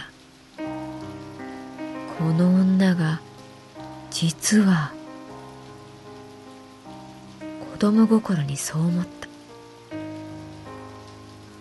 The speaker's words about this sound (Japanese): でもここからがちょっと変わっていた軒下にいるはずなのに雨は容赦なく男と女を濡らしていくその雨の量が半端ではない全身ずぶ濡れ